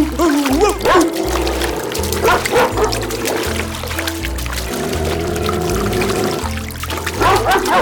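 Water splashing and churning in a stream as a long-haired dog flails its front paws and bites wildly into the water, steady and noisy throughout, mixed with the dog's excited barks and yips over a backdrop of music.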